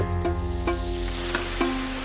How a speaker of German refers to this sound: Also wenn es hier in Singapur regnet, dann aber richtig. Es ist eher so, als würde jemand Eimer aus dem Himmel kippen. Und das schon seit Tagen.